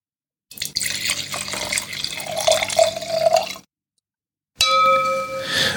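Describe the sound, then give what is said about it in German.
The last of a bottle of Grauburgunder white wine from Weingut Winter splashes and gurgles into a glass for about three seconds, then after a short pause a bright glassy ringing tone follows. No one speaks. “Und den letzten Rest dieser Flasche, davon wurdest du gerade Zeuge, habe ich mir soeben ins Glas gegossen.”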